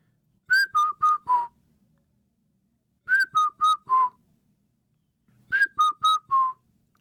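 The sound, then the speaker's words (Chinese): A person whistles an imitation of the call of the Indian cuckoo, known in Chinese as the four-note cuckoo: three phrases of four clear notes each, the first note highest and the rest stepping slightly down, with pauses between phrases. No talking. “这种鸟，因为它就是叫声就是四声的嘛， 嘟嘟嘟嘟，嘟嘟嘟嘟， 对，然后它的名、 哦 名字就叫四声杜鹃 哦， 啊，对，就是你就很多人应该听过这个声音”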